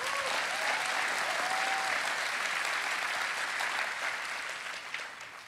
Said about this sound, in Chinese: 要鼓掌，大声鼓。